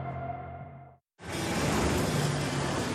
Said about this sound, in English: Hear that? The stampede's coming.